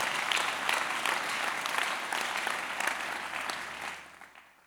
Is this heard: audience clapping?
yes